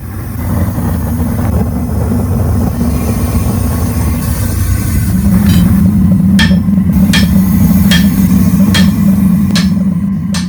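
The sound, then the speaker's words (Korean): A hammer strikes metal in a steady rhythm, about seven sharp, ringing blows spaced under a second apart, over a constant low rumbling drone that fills the whole clip, as Moses beats melted bronze into the shape of a serpent. “모세는 즉시 하나님의 말씀대로 노슬 모아 녹이고 그것을 쳐서 뱀의 형상을 만듭니다.”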